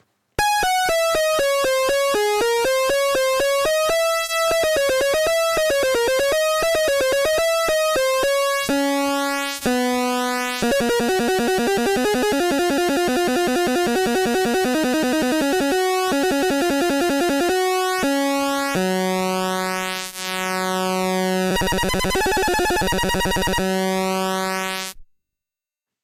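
A simple early home-computer game chiptune melody, composed by a 15-year-old, in bright, buzzy square-like tones, with fast stepping notes, pitch slides and steady sustained chords, playing continuously without any voices for about twenty-five seconds.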